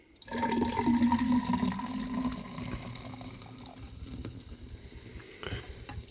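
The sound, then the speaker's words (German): Liquid pours steadily into a glass, a gurgling stream whose tone rises slightly as it fills, then thins out to a softer trickle and a few final drips. “So, der ist auch komplett drin.”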